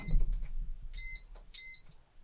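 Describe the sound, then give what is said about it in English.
Two short, high-pitched electronic beeps from a smoke alarm sound about half a second apart, clear and piercing over a faint low rumble, with no voices. “Is that the smoke alarm?”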